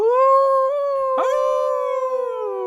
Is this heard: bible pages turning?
no